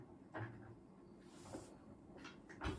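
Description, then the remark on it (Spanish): An office chair's gas lift lever being worked to raise and lower the seat between its minimum and maximum height: a few soft mechanical clunks and brief airy hisses, spaced out with quiet pauses between them. “bueno aquí en la palanca la típica palanca de las sillas no para subir y para bajar.”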